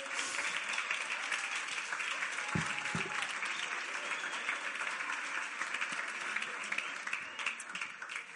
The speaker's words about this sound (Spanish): Un aplauso para el soltero, guapo y fuerte.